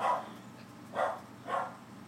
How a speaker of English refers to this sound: Is that your dog?